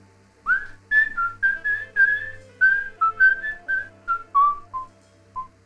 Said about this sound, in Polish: Oznamił radośnie i zaczął gwizdać sobie tylko znaną melodię.